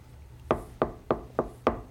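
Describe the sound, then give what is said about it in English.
Five firm knocks on a door in a quick, even rhythm against quiet with no voices. “I slide off the bed and head over to the door, exchanging an excited glance with you before opening it.”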